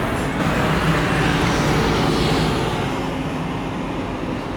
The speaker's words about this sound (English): I'm surprised that the bus that just passed by makes so much noise because I read somewhere that the buses, like the city buses, would have would um, all migrate to electrical power.